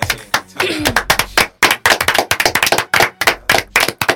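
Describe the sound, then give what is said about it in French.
An audience in Paris claps steadily, with a dense run of sharp, loud hand claps in a fast, slightly uneven rhythm lasting about four seconds, plus a brief murmur of voices early on. “Ah, il y a eu plus de succès là. Euh, l'applaudimètre à Paris là.”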